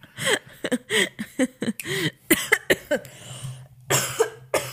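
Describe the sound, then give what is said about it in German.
A rapid series of harsh coughs bursts out one after another, broken by brief gasps, with a final cluster of coughs near the end. “Jetzt habe ich, weil ich, ich weil ich gehustet habe und dann wollte ich aber schon reden und dann habe ich so aber meine Husten sauber eingeatmet oh, und musste nein.”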